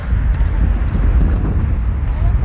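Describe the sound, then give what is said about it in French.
Strong wind roars steadily throughout, a loud, low rumbling rush that buffets against the microphone with no breaks, drowning out any other detail, on an esplanade among buildings with terraces overlooking the city of Yerevan. “Vous entendez le vent derrière.”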